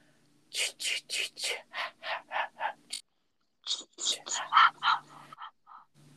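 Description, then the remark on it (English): A voice imitates the whispered, breathy first-person chase breathing effect of a horror movie: a rapid run of about nine sharp hissing bursts, a short pause, then a second, more uneven run fading out, fairly loud. “In the movie, you have the iconic first person chase and breathing sound.”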